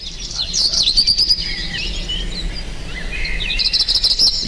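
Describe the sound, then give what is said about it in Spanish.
Several birds chirp and trill in quick, overlapping bursts, a steady high-pitched chorus that swells near the end, heard outdoors over a soft background hum with no voices. “Pacharinos, por favor.”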